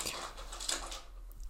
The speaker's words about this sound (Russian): Извините, если вы слышите э, шум на фоне, это мой щенок.